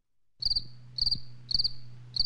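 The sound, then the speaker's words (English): A crickets-chirping sound effect: four evenly spaced bursts, each a quick trill of high pulses, with a low steady hum underneath and no voices. “That's more crickets.”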